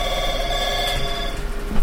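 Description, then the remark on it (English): A telephone rings steadily and fairly loudly, its bright, buzzing bell tone sustained through the whole short stretch with no voices over it. “And there we go, right on cue is Absolutely. the phone.”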